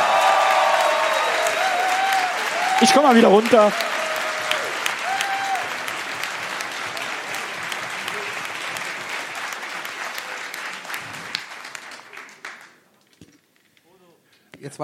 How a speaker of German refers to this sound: Jetzt nicht eure, nicht eure ganze Klatschenergie verschwenden. Denn jetzt brauchen wir noch euren Applaus